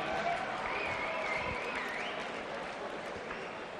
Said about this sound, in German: Einen fetten Applaus für die Schwaben mit 6 Punkten!